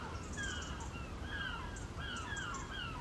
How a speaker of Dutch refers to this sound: Het is eh, s ochtends vroeg, rond 8 uur. Het is verder stil in de buurt. Behalve de meeuwen die schreeuwen. Die meeuwen die houden echt een concert.